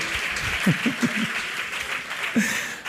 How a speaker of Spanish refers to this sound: Ganó Durán, vamos, un aplauso fuerte.